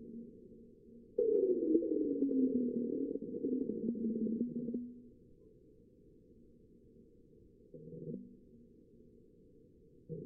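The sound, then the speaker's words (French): A sonified seismic recording of the first marsquake, recorded on 6 April 2019: a low, eerie rumbling drone with a descending whistle-like tone swells in at about one second, holds for several seconds, then fades to a faint hum, with a brief quieter rumble near the end. “Et suite à ça, c'est finalement quelques mois plus tard, le 6 avril 2019, qu'enfin le premier Quake sera enregistré, inaugurant une longue série de mesures extrêmement précieuses. Et on va l'écouter d'ailleurs tout de suite.”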